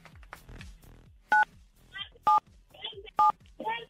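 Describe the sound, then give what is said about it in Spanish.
Three loud, crisp telephone keypad beeps, evenly spaced about a second apart, each a short dual-tone DTMF pulse, with people talking quietly in between, as a caller from Chalco, State of Mexico, presses 977 on his phone during a call-in to radio station La Mejor FM 97.7 to activate a prize roulette. “Entonces presiona en tu teléfono el 977.”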